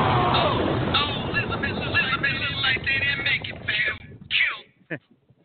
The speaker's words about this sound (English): That kind of sounds like an echo effect. I accidentally hit the button twice.